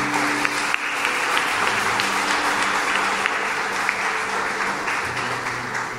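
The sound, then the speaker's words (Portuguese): A sustained round of applause offered to God by a crowd at a Christian worship service, dense steady clapping that stays loud throughout with a few sharper individual claps standing out. “Uma salva de palmas a Deus.”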